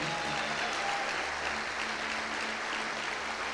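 A crowd claps steadily in sustained, dense applause to Jesus, giving thanks for a woman's life; it stays loud and even throughout, with a faint murmur of voices beneath the clapping.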